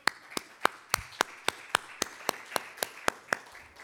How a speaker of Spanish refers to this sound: Un aplauso al Señor.